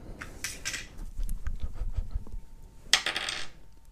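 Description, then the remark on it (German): Dice rattle and click, then tumble and knock across a hard tabletop with a low rolling rumble, ending in a bright clatter. No one speaks. “Das war jetzt ein sehr demonstratives Würfeln.”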